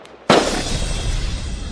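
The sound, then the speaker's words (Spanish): A sudden loud firework blast erupts after a brief quiet moment, followed by a sustained crackling, rumbling wash of exploding fireworks and firecrackers that continues steadily without any voices. “Ahora con los cohetes artificiales, oiga.”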